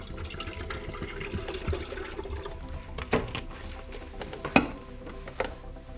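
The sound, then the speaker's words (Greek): Water runs steadily from a tap, a continuous rushing stream, as water is drawn to be heated for making oats with protein and honey, with a few sharp clinks of a container breaking through near the end. No one speaks. “Εγώ συνήθως χρησιμοποιώ ζεσταίνω νερό πάντα για να κάνω τη βρώμη μου μαζί με πρωτεΐνη και μέλι”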